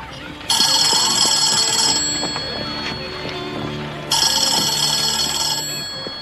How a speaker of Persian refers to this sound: دیروز به ما گفته بودن که برای این شماره پادکست چند تا تماس تلفنی داریم حالا نمیدونم چرا الان کسی زنگ نزده آره الان یکی داریم الان یکی زنگ زده